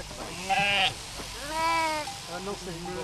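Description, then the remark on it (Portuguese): Sheep bleat repeatedly during shearing by the Australian method, a few wavering, quavering calls in quick succession, fairly loud, with no talking over them. “O conforto das ovelhas é também o um negócio dos criadores, ou começa a ser, depois de muitos anos em que o que ganhavam com a lã não chegava para pagar a tosquia.”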